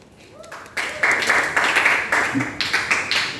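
An audience breaks into applause, a dense, crackling wash of many hands clapping that swells quickly and holds steady at a fairly loud level, with slight surges through it.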